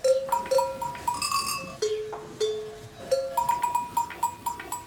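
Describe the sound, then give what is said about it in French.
Many sheep bells of different shapes and sizes clang and jingle continuously as a flock of ewes moves, overlapping tones of different pitches ringing out with an uneven, shuffling rhythm. “il y a différentes formes de sonailles qui donnent des sons différents”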